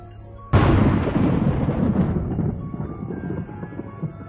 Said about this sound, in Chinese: 天上一道闪电掠过，紧接着咔嚓一声巨响，黄豆大小的雨点已经从天上落了下来。